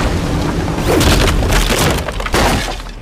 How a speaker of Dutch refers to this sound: We kunnen het beste met de kop tegen de dijk varen.